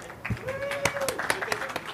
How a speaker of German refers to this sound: Die Frage hat sich übrigens Till ausgedacht, meine Damen und Herren. Ein Applaus für Till.